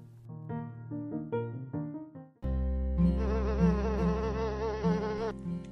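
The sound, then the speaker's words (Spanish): A few bright plucked musical notes, then a loud housefly buzz takes over, droning steadily with a wavering pitch for the remaining few seconds, opening a reading of the children's book La mosca en Un día perfecto by Gusti. “La mosca en Un día perfecto puede llegar a ser una pesadilla.”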